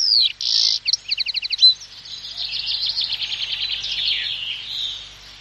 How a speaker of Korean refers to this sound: 5월 초하루 새벽 4시쯤 되었습니다. 날이 채 밝기도 전에 벌써 종달새가 하늘에 높이 떠서 은방울을 흔들기 시작하였습니다.